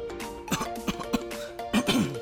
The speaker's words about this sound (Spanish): No, no, no, a ver, vente, vamos al servicio médico porque traes una tos bien fea, ya llevas como dos días.